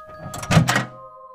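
A front door opens by itself with a brief rattling clunk, two quick bursts of handle and hinge noise over a steady, faint tonal hum that continues after.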